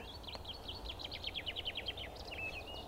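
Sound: dunnock song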